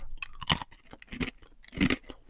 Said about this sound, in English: It's a pretzel. Ah, I oh, thought the pretzel would be a little more soft in, in the crunch. Oh. These, just another one. Just this. This is another pretzel, just so you can get your ears around this one.